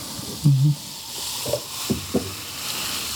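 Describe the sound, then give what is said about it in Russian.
Fizzy tonic pours into a glass: a short gurgling splash at the start, then a steady carbonated hiss with a few small bright pops and crackles as the bubbles settle. “Все, наливаем. А, наливать же надо.”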